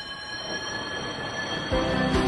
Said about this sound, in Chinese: 火车越靠越近，然后从小丽的身旁快速开过。